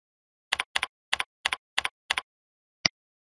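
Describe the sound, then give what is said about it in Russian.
Six quick, evenly spaced pairs of crisp clicks of keystrokes on a keyboard as a password is typed to access an administrator page, followed by a single sharper click after a short pause, clear with no talking. “Для начала введем пароль для доступа к странице администратора.”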